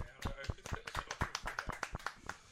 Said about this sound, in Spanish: Venga, vamos a darle un aplauso. Venga, va.